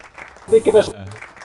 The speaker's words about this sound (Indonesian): tepuk tangan.